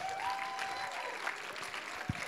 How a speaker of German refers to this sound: Gebt mal Gott Applaus.